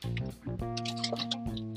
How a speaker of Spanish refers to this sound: Permítame tantito, por favor. Necesito tomar agua porque se me está resecando la garganta.